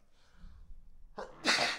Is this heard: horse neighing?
no